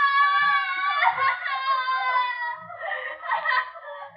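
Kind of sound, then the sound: human body sound, distant woman screaming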